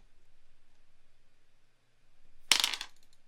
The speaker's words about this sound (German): Würfelst du jetzt für mich? Ich würfel jetzt für dich. Okay.